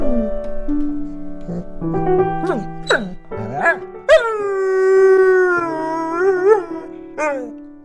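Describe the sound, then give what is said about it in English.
Nathan, a big, shaggy 60-pound Border Collie–Newfoundland mix dog, howls in long, wavering, rising and falling tones, fairly loud, over a slow piano playing the opening aria of the Goldberg Variations underneath throughout. “this delightful story about his dog's reaction to one of his beloved hobbies”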